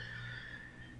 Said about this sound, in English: I figured I might as well be comfortable and open the garage up and and and hear the traffic and you can hear the birds outside.